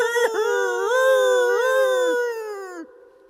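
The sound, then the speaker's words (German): A voice imitates an eerie owl call that echoes through a torch-lit cathedral nave: one long, wavering, hooting wail that rises and dips in pitch for about three seconds, loud and alone, before trailing off. “Schauerlich hallte mein grässlichster Eulenruf durch das Gemäuer.”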